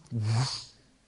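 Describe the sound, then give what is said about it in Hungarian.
A single short, voiced sneeze, fairly loud, with a breathy burst that fades quickly; it sounds like a person imitating a sneeze with their voice. “és azt mondja, hogy na de egészségedre.”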